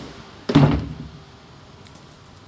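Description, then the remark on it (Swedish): A door in a carpentry workshop shuts with a single solid thud, its low resonance fading over half a second into quiet. “Jag ska stänga den här dörren för de...”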